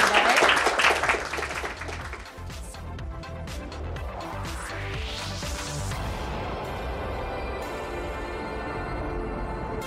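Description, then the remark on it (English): A short burst of dense audience applause thanking a discussion panel opens, then quickly fades as music takes over, with a rising swept tone building into a steady, sustained musical outro. “Um, please join me in thanking our wonderful panel for this fascinating conversation today.”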